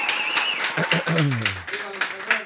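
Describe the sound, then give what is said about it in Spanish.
Audience applause in honor of a guest's late father, a steady crackle of many hands clapping throughout, with voices calling out and cheering over it. “un aplauso a tu papá.”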